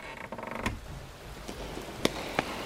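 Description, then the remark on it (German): A door eases open with a soft, drawn-out creak, followed by several quiet latch clicks and knocks as it is carefully closed, all faint with no voices. “Diese verdammte Tür. Sie leise zu öffnen und wieder zu schließen ist die größte Herausforderung für Miggy.”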